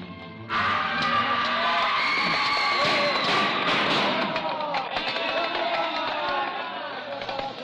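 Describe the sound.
A screaming, hysterical mob sweeps through the streets, driven on by mounted police with lashing whips: a loud, dense crowd of voices bursts in suddenly and keeps up a continuous, chaotic roar of shouting and screaming, with many overlapping cries rising and falling throughout.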